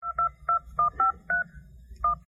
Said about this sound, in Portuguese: Nunca tive essa ideia de ficar compondo musiquinho com o teclado do telefone, gente.